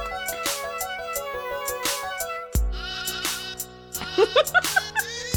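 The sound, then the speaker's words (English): A toy sheep lets out a few quick, wavering bleats near the end, layered over a bouncy electronic melody with a steady beat; no one speaks. “And then there's, there's little sheep thing that he uses.”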